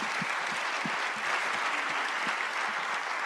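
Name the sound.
audience applause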